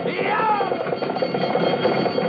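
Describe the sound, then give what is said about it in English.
A horse-drawn fire engine bell rings rapidly and continuously as the engine comes into Main Street, a loud metallic clanging with bright ringing overtones, while voices are heard beneath it. “All right, keep that bell going.”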